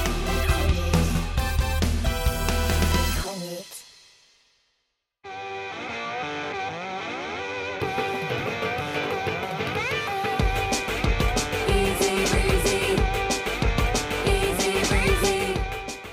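A short burst of loud, distorted music with heavy bass stops abruptly, leaving a brief silence, then a bright, busy electronic tune kicks in and plays steadily to the end, with no voices.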